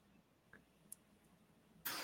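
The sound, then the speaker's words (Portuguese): Near silence with a couple of faint clicks, then a single sudden, harsh cough bursts out loudly at the very end, cut off abruptly. “Tô com uma tosse”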